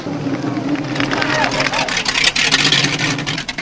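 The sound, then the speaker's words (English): Several police cars race in with a loud, steady engine roar and faint wavering siren tones, the rumble building as the vehicles draw near and fill the scene with noise. “Calling all cars, calling all cars, leaving a big mug and heading your way. Here come the cops.”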